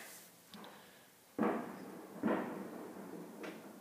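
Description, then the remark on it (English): Fireworks go off in a series of four muffled booms and cracks at uneven intervals, each with a lingering rumbling tail, with no voices present. “they still busting fireworks up there.”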